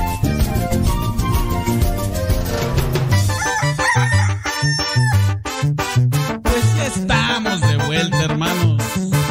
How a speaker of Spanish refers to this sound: Mucha gente me ha dicho que el canto del gallo es como un canto celestial. Mucha gente me ha dicho que el canto del gallo recuerda cuando uno está mal.